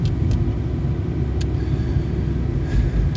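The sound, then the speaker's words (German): Steady low engine rumble inside a car being driven to work early in the morning, a constant deep drone with road noise and a few faint clicks or ticks above it, no voices. “Es ist nach meiner Uhr 20 vor 6 und ich bin auf dem Weg zur Arbeit.”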